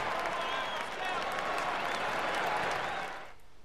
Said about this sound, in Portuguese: Gente, merece uma salva de palmas porque é sensacional.